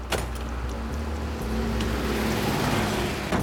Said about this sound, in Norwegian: Så han sto og venta på meg der, for han hørte nok bilen på lang avstand.